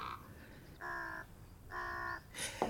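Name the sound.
ravens cawing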